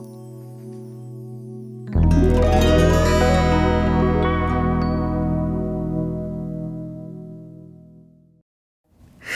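A Christmas carol pop medley: soft sustained chords swell into a loud, full band with bright synths, play for several seconds, then cut off into a brief silence.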